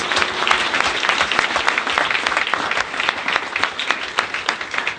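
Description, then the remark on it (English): Steady applause from a crowd for 11 people after a prayer, many hands clapping in a dense, continuous patter that stays loud and even for several seconds with no voices over it. “We give those 11 people a round of applause.”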